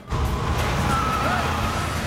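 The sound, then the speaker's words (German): A car with a holed exhaust drives off, its loud, rough, throaty roar starting abruptly and holding steady for about two seconds, with no voices. “Dein Auspuff, er ein Loch, weißt du das?”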